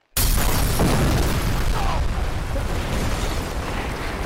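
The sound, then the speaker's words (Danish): A sudden loud explosive blast erupts from silence as ordinary Royal fireworks, their rocket sticks broken off and packed into a 10-litre plastic bucket coated with epoxy, detonate. A sustained roaring, crackling rumble follows and stays loud and dense for several seconds without clear pauses. “Nu var det en plastikspand fra Silvan med ganske almindeligt royal fyrværkeri i.”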